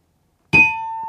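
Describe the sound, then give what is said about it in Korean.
A bright ding-dong-dang correct-answer chime for a quiz answer rings out after a moment of silence, one clear struck tone that sustains steadily, fairly loud, with no voices. “딩동댕 드리겠습니다.”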